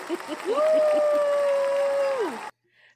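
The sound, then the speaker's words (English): An inserted applause sound effect: a burst of crowd applause with a long, steady cheer or whistle rising, holding and sliding back down over the clapping. It stops abruptly after about two and a half seconds. “Inserts okay. applause.”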